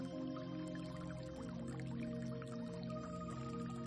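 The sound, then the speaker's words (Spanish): Gentle water trickles and drips continuously at a shore, blended with a steady, soft musical drone; no one speaks. “Vamos a imaginar que estamos a la orilla del mar o de un lago o de un río, escuchando el agua.”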